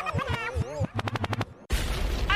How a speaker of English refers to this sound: Liquid means rewind, a gunshot means forward.